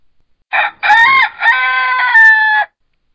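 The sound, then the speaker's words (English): A rooster perched on top of a barn in a farmyard, flapping its wings, lets out one loud crow, a short opening note followed by a long drawn-out call that holds steady before cutting off, with silence around it. “he crowed, flapping his wings.”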